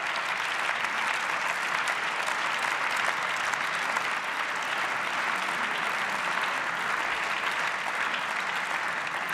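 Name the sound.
applause in parliament chamber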